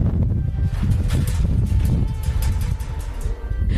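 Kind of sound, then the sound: nature, strong wind blowing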